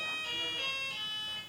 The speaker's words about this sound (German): Das ist unsere Klingel, ja. Das ist die, ich glaube, die erinnert mich daran, nicht so viel Blödsinn zu erzählen.